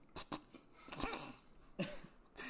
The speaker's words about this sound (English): He just wants to chew in the mic.